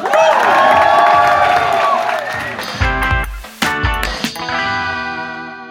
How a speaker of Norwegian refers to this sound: Gi en varm applaus til Dag Sørås!